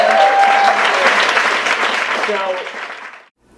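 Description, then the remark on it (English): An audience at a Skylight Books author reading claps loudly and steadily for about three seconds, a dense wash of many hands with a few cheers mixed in, then it cuts off abruptly into silence. “Thank you guys very much for coming. Uh, one more time for”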